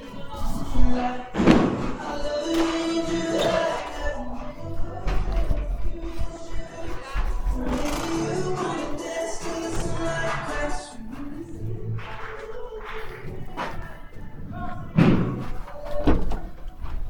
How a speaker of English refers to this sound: Come on in. I'm going to shut these doors. It's really loud in here.